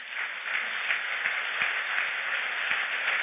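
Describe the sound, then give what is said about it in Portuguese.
A crowd applauds the Lord for a man's life, dense overlapping claps forming a continuous wash of sound that holds at an even, moderately loud level throughout, with no voices standing out. “Aplauda o Senhor pela vida”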